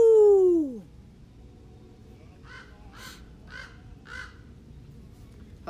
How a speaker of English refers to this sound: Got some crow action out here.